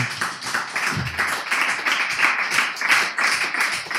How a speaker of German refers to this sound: Vielen herzlichen Dank. Ich finde, es hat einen extra Applaus verdient jetzt hier.